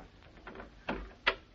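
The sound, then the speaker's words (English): A wooden chair is flipped upside down: a soft scraping shuffle, then two distinct hollow knocks as the wood bumps and settles, with no voices. “Let, let me turn it upside down.”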